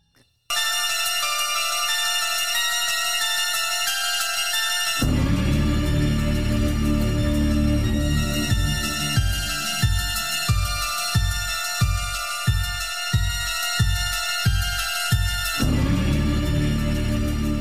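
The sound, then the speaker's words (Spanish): Dark synthesizer horror film theme music for the Michael Myers film saga plays with no voices: bright sustained tones hold alone, then a deep bass pulse enters, throbbing in a steady rhythm beneath the shimmering synth layers before fading out. “Esta música que acaban de escuchar”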